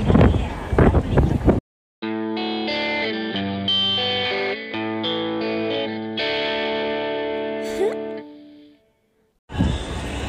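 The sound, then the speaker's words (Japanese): A short synthesized jingle with layered, effects-heavy tones plays for several seconds, set between stretches of noisy talk on either side, ending abruptly before a brief silence. “まあとりあえずジングルいきます”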